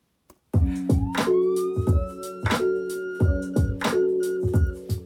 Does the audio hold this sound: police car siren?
yes